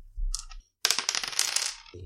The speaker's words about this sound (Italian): Ok, ho due dadi, direi di non spaccare il capello in quattro e di tirare quel cazzo di due dadi.